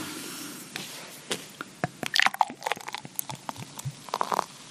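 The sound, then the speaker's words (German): Unfiltered Kellerbier is poured from a bottle into a glass, a subdued pour heard as a dense run of small crackling, fizzing pops and soft gurgles, fairly quiet, with no talking. “Hm, recht verhalten, das Einschenkgeräusch.”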